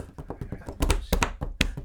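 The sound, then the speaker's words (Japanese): A computer keyboard's Enter key struck hard again and again by an office worker, sharp thunks in an uneven quick rhythm, several louder slams standing out over lighter taps. “もうあのエンターキーをもう俺仕事できるだろばりにパンパン押す腹立つやついるけど”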